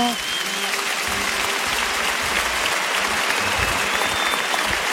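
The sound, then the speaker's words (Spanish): Loud, sustained applause from a large crowd at a bullring, a dense steady roar of clapping that holds for the whole stretch, with faint whistles and voices mixed in: an ovation for the bullfighter El Juli as he finishes his lap of honour in farewell. “Fuerte ovación del público.”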